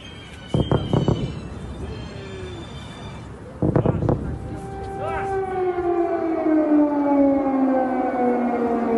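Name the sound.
air raid warning sirens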